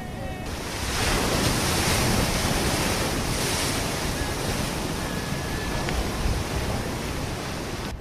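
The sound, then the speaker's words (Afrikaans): Steady roar of surf mixed with gusting wind at the Port Elizabeth beachfront, a broad continuous rush that swells after the first second and holds loud throughout, with faint high whistling tones drifting above. “ons is nou hier by die Port Elizabeth se strandfront.”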